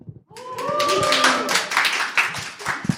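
A live audience at Vodnik's homestead in Ljubljana bursts into clapping with whooping and cheering voices rising over it, a dense, loud wash of applause that begins abruptly and keeps going.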